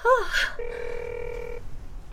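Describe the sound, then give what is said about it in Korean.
A brief vocal exclamation, then a single steady, buzzy ring tone of a call to a mobile phone that holds for about a second before cutting off, with no answer. “아, 왜 안 받아?”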